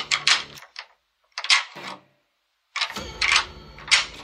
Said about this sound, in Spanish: Solo el chasquido de la cerradura al abrirse.